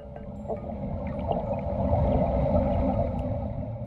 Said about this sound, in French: ce bruit que vous entendez pourrait tout à fait incarner un moment important de l'histoire de l'humanité, celui de l'arrivée d'une nouvelle ère géologique. C'est le son d'un grand tube métallique qui s'enfonce dans les profondeurs du lac Crawford